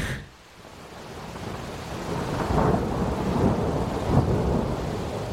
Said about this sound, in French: Et en fait, on s'est pris on s'est pris bah, l'orage et puis des trompes d'eau vraiment sur la tronche.